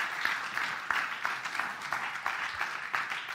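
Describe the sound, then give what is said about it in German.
A crowd breaks into steady applause, many hands clapping densely together with a few sharper claps standing out, sustained throughout. “Wollen wir einen Applaus geben?”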